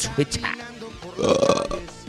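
A loud, drawn-out burp rumbles for about half a second after a few short vocal noises, slightly gravelly in tone.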